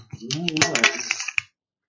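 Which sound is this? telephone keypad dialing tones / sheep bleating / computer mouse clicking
computer mouse clicking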